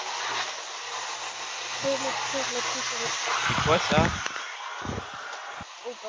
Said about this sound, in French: Aspirateur, non, je crois. C'est eh bien le moment pour les bruits d'aspirateur. C'est pas changer de pièce Attendons que le seigneur aspirateur soit parti.